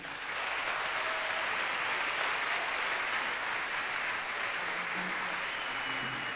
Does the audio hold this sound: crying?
no